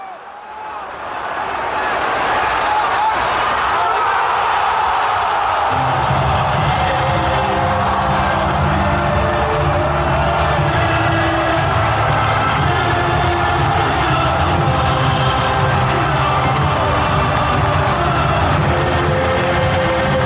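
A stadium crowd roars after Mariano scores Real Madrid's second goal near the end of the match, the noise swelling within the first seconds and staying loud and continuous, with a low chanting hum joining in partway through.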